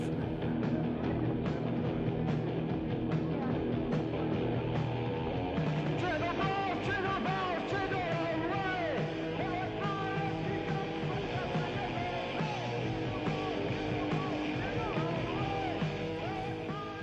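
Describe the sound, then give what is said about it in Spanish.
A punk rock rendition of Jingle Bells plays loudly and steadily, with dense distorted guitars, pounding drums and shouted vocals driving through the whole stretch without a break. “Era na, na, na, na, na, na solo que con punks gritando y guitarrazos.”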